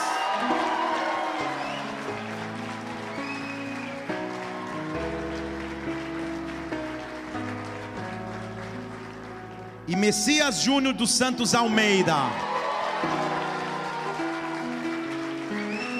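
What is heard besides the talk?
audience applause and cheering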